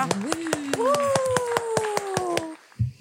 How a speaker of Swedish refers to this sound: Applåder till Joakim. Ett, två, tre.